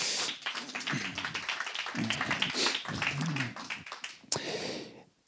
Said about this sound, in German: Dazu bitte ich drei Personen on stage. Die drei Personen wissen, dass sie jetzt kommen dürfen. Ein Riesenapplaus. Applaus